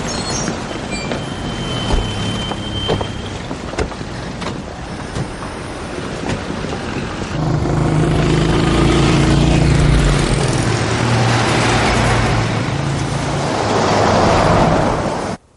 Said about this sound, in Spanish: Un convoy de coches militares por la carretera.